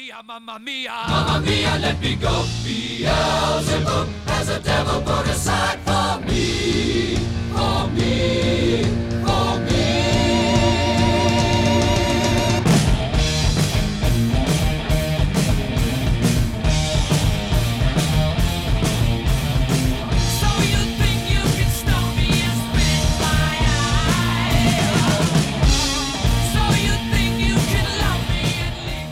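A loud, dense rock passage plays continuously for half a minute, with pounding drums, driving guitars and sustained vocal lines building into an energetic, full-band climax.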